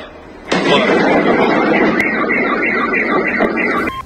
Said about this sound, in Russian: Очевидцы в соцсетях писали, что взрывы слышали из разных районов. Я же сказала, это беспилотник! Есть попадание!